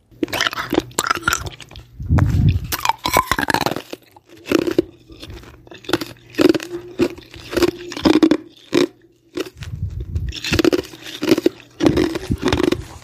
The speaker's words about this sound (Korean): 얼음 아이스크림 우구적우적 먹는 소리. 요즘엔 너무 더워서 시원한 것만 찾게 되네요.